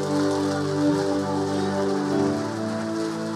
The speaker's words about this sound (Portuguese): Pode aplaudir, irmão.